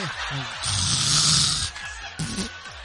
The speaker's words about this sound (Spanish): como que esos que roncan por los dos lados, ¿verdad? Ya sabes.